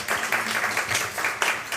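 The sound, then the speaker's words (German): Audience applause at a reading, a steady wash of many hands clapping at an even, fairly loud level throughout, with faint voices mixed underneath. “Sonst lese ich nicht, nicht 42 Stunden, sondern 52, wenn Sie so viel klatschen.”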